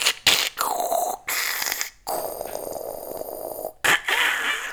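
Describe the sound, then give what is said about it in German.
A voice mimics a 56k dial-up modem handshake when logging in: a run of hissy, buzzing bursts, a falling whistle, then a long steady screech of layered tones, broken by short gaps and ending in static-like noise. “Ah, ich vermisse die 56k-Zeiten, als das noch so ging, wenn du dich eingeloggt hast”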